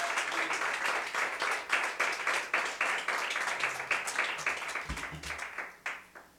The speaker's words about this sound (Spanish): En ofrenda de palmas al Señor.